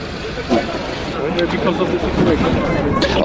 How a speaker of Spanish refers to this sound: ok, aquí hay una parada de autobuses a donde llevan a toda la gente, la van distribuyendo a los distintos países que los están acogiendo